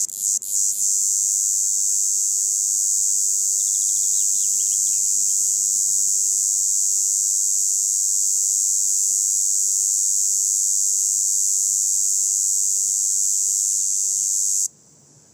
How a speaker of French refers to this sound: Et l'insecte musicien qui est la cigale rouge. est à 3 mètres aussi au-dessus des microphones sur un poteau téléphonique en bois. Alors que tous les autres individus sont dans les, dans les chênes et les pins euh, sylvestres.